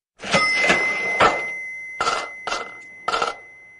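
A cash register sound effect rings out alone on RSG radio, introducing a money-tip segment: mechanical clatter and a sustained bell tone, followed by three quick, separate chiming strikes, fairly loud.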